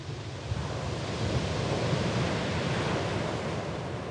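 Ocean waves break and wash steadily onto a beach, a continuous broad roar of surf with slight swells in intensity, fairly loud, with no voices present.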